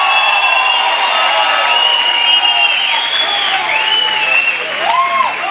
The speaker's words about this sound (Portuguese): Se você acredita nisso, enche o seu peito, dá maior grito que você puder dar essa noite.